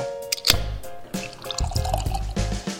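A fresh Lunar New Year beer from Lucky Envelope Brewing, a local Asian-owned brewery, pours into a glass with a bubbly, gurgling rush, the liquid splashing and fizzing in uneven surges, with no voices over it.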